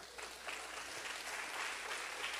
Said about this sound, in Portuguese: Aplaude a Deus, aplaude.